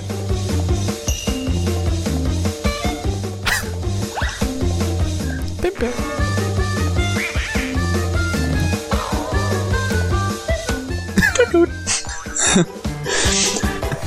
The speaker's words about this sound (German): Hört's euch einfach erstmal an. Denn da sind ein paar wunderschöne kleine Effekte mit eingebaut, so ein paar Comic-Sounds. Und die Gitarre.